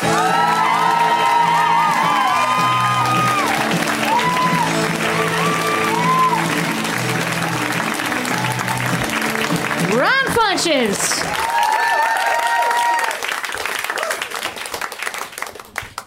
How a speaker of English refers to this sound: So please, yes, yes, energy like that, audience. I like it. Keep those woos going for our friend, Ron Funches.